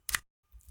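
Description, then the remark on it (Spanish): A quick mechanical click-slide as a button on an audio recorder is pressed, sliding out the recorder's USB connector, sharp, followed by a softer rustle of handling after a brief pause. “lo que acaban de oír es un botón que yo al apretarlo en mi grabadora me sacó la entrada USB como si fuera una memoria USB, un flash drive.”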